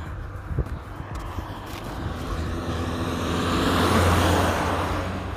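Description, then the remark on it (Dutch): A small green French car with an open roof drives past, its engine and tyre noise swelling steadily to a peak near the end before starting to fade, with no one talking. “Oh, dat is echt zo'n Franse autootje.”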